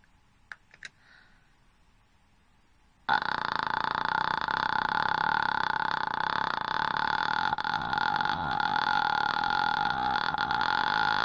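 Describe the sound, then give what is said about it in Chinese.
A few faint clicks, then a long, steady vocal fry on an "ah" vowel, made in the throat and pushed by the breath from a relaxed chest in a half-yawn posture: a loud, low, rattling creak like tiny popping bubbles, held for about eight seconds with no talking. “然后通过你的喉发出气泡音，气息推动，发出一个啊的音。”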